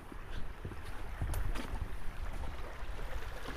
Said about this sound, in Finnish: No nyt kuuluu se solina, mitä tilattiin.